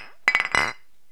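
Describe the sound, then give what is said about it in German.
Two glass beer mugs holding Augustiner Oktoberfestbier clink together in a toast, a quick cluster of bright, ringing knocks, followed by a short fading ring. No one speaks. “Ähm, und damit können wir jetzt gleich feierlich die Folge eröffnen. Ja, Prost.”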